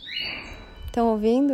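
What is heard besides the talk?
small bird singing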